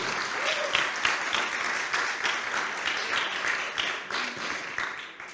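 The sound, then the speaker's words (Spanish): A crowd applauds the Lord steadily, many hands clapping in a dense, continuous wash that holds a fairly even loudness throughout, with no voices standing out above it. “dale un aplauso, Señor, fuerte.”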